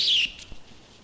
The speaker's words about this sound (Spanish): Yo tengo un pajarito. Un pajarito. Tiene que ser un pajarito, Nidia. No puede ser estática.